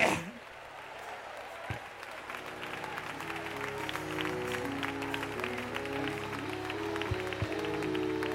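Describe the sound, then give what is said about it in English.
A standing audience claps in praise to God, a dense, continuous patter of many hands over sustained musical tones that hold underneath, growing slightly louder toward the end. “So somebody help me confuse the enemy and stand to your feet and clap your hands and say to God, you are still worthy.”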